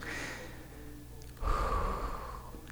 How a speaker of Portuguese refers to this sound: Agora solta. Solta todo o ar, libera, liberta, deixa sair todo.